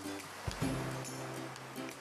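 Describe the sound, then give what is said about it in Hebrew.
A voice imitates ocean waves breaking on shore, producing a steady, breathy whooshing with a low hum, moderately loud, swelling briefly around the middle before continuing. “סאונד של גלים, סאונד של גלים, סאונד של גלים.”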